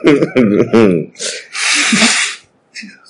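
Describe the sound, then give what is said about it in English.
A brief burst of voice, then a loud nose blow: a harsh, noisy honk blown right into the microphone lasting nearly a second, followed by a faint sniff. “Jeez, are you just blowing your nose inside the microphone?”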